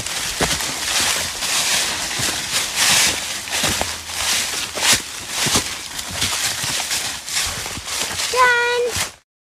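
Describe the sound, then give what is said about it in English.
Footsteps of an adult and kids on a hike crunch through dry leaves on the ground at a steady walking pace, each step a loud brittle rustle, continuing for several seconds before a brief high squeak and an abrupt stop. “If you said crunchy, crunchy leaves on the ground, then you are correct.”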